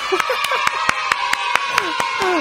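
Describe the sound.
Audience applause from outside, in a steady, even rhythm, about a dozen sharp claps in quick succession, with voices talking and murmuring underneath throughout.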